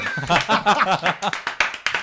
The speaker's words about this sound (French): Oh, vous me laissez applaudir tout seul en plus.